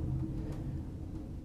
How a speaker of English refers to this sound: And I apologize for the background noise. It is uh, there's some thunder and lightning going on